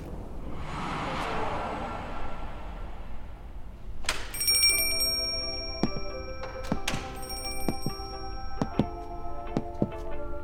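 A brief whooshing rush gives way to a front desk service bell in an inn lobby, struck sharply several times in an uneven pattern, each bright ding ringing on and overlapping the next, clear.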